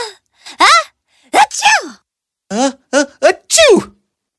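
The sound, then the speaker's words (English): A voice acts out a string of theatrical sneezes, about six loud bursts with breathy wind-ups and sharp vocal achoos, separated by short silences. “a lot of her pixie dust fell on the king, Tara, and Aaron. Oh no, not again! Uh, uh, uh, achoo!”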